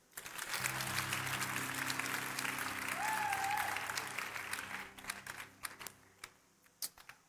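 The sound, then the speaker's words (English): A church audience claps for themselves in a dense, steady burst of applause that runs for several seconds, then thins out into a few scattered, fading claps. “Clap for yourself”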